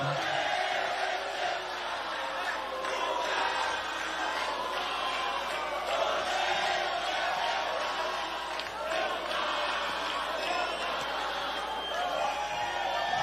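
A large audience shouts and yells in protest, a dense, continuous roar of many overlapping voices that holds steady and loud throughout without pause.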